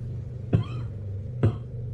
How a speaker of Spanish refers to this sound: Luego escuchó una tos, una tos que reconocía, y cómo tocaron en la ventana de su tienda.